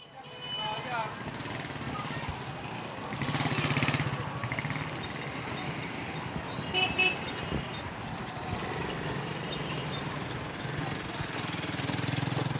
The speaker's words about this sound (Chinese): 公交是挤不上的，汽车啊、摩托车啊也多的是。 估计路边的聋子都会被震怕了。